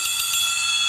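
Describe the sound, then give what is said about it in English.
A drum-made imitation of an alarm clock: a loud, bright, high-pitched ringing that holds steady for about a second, with a few quick pulses near the start and no talking. “alarm.”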